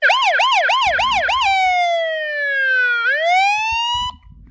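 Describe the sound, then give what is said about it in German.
An emergency doctor's vehicle siren wails loudly as it arrives, first in a fast rising-and-falling yelp, then a long slow downward sweep that climbs again, with faint traffic rumble underneath before it cuts off. “Ich bin äh, hier der Notarzt.”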